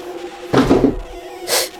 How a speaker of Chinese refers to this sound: 我踢到了放在走廊的行李。